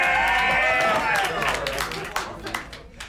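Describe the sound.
Party guests clap steadily, the applause a dense patter of sharp hand claps, with excited voices and cheers rising over it at first before the clapping thins out and fades; the applause thanks a guest who helped decorate for the party.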